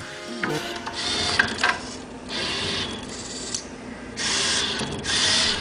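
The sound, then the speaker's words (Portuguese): The motors of a Rhino educational robot arm, the first teaching robot at the Técnico, whir and grind in several bursts of mechanical movement, each lasting about a second, separated by brief pauses and clicks. Fairly loud, with no talking. “E já que estávamos a falar dos sons, dos robôs, da ficção científica, a comparação, este é o som verdadeiro do Rino, o primeiro robô pedagógico do técnico.”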